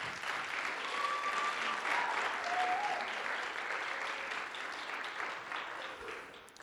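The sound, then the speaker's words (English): An audience claps together as praise to God for the young people leading worship, in a steady, dense wash of applause that holds level for several seconds before easing off slightly at the end, with a few faint cheers mixed in. “Um, can you give God a hand clap of praise for them, please?”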